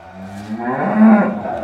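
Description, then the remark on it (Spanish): A single drawn-out cow moo, low and harmonic, swelling in the middle and trailing off, with a slightly distant, open-air quality and no voices. “Ese es, oigo a lo lejos el mugido de esa maldita vaca.”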